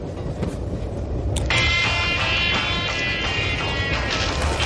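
A train carriage rolls steadily along the rails with a loud, continuous low rumble and rattling clatter, joined after a second or so by a sustained high-pitched whine.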